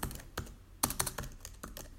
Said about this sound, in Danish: Det kan også være nogen, der taster meget hårdt i deres computertastatur.